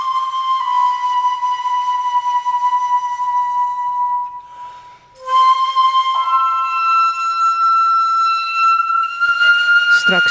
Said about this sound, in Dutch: na half negen meer over het boek Flankhond van Bas Kwakman en over de Shakuhachi-fluit. En die hoor je hier nu al eventjes.